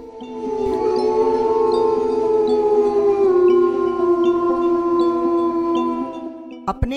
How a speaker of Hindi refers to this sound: बाहर आया तो देखा पूनम का चांद आसमान में अर्थात रात चांदनी थी पास के जंगल से सियारों के झुंड अपनी बोली बोल रहे थे